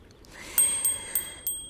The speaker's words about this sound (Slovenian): Pa tako lepo bi bilo, ko bi lahko tako le zvončkljala